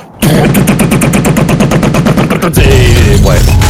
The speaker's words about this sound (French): ça va ouvrir. la, double porte s'ouvre, elle explose littéralement sous les tirs du drone, laissant s'engouffrer la tempête euh, dans les, dans les couloirs internes